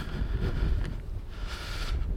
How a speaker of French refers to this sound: Et nous avons le droit à un petit peu de vent parce que je vais passer sous un pont et qu'aujourd'hui à Nantes il y a un peu de vent.